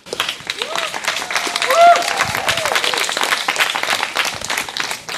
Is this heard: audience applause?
yes